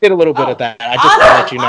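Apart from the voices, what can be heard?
dogs barking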